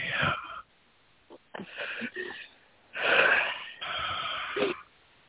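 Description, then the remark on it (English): Heavy breathing: four loud, raspy, wheezy breaths drawn in and pushed out in an uneven rhythm, separated by short silent pauses, with no talking. “Breathing.”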